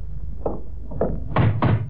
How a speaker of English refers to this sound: Suppose we knock on her door. Yeah, knock on her door see what happens.